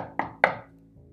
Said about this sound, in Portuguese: Então, nesse momento que ela tenta entender, que ela faz o chamado lá, liga pedindo ajuda, ela nota batidas na porta do quarto dela.